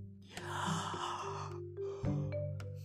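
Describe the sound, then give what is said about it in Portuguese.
A long, drawn-out yawn from a tired female speaker made drowsy by fever medicine, fairly loud, rising with a breathy intake and then sliding into a voiced, tired exhale with a brief second stretch at the end. “Acho que vou dormir. … boceja.”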